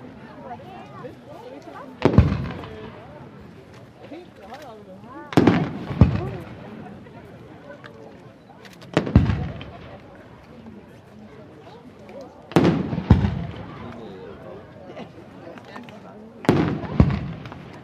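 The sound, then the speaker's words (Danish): Five cannon salute shots, the traditional Danish salute fired by a harbour cannon crew at Hunebæk Havn, boom out one after another, each loud and sharp with a rumbling tail, spaced about three to four seconds apart over a low murmur of background voices. “I har lige afgivet øh, det danske løsen med mere.”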